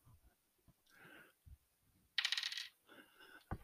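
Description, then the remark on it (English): A small die, being rolled for character ability scores, tumbles off a desk, landing in a bright clatter that rattles for about half a second, with a few soft knocks and bumps before and after. “And the dice dropped off my desk.”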